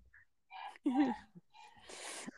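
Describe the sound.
A woman grunts and groans into a Pringles can held to her mouth, giving a muffled, resonant, slightly barking tone in a few short bursts, followed by a breathy exhale.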